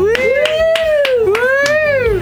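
Steady rhythmic clapping, about three claps per second, keeping time under a sustained sung or hummed melody that rises and falls in pitch.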